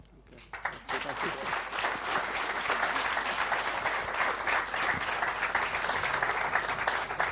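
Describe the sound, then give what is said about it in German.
An audience breaks into sustained applause after a brief quiet start, a dense, steady wash of many hands clapping at even loudness for several seconds with no voices standing out. “Dein Applaus.”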